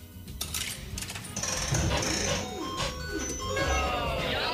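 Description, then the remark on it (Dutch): Metallic clinks of a coin dropping into an arcade coin game, set against bright electronic machine jingles and a busy background of voices. “Hier komt je eerste muntje.”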